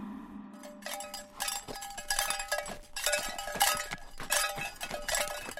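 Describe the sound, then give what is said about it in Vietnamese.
Harness bells on a mule running through neighbourhood alleys jingle and clank continuously in irregular bursts, bright metallic ringing with faint hoof-like knocks beneath, steady throughout, with no voices. “ấy vậy mà con la nhà tôi lại lôi kéo được sự chú ý của xóm trên, xóm dưới và cứ chạy bon bon với các chuông len keng khắp ngõ ngách.”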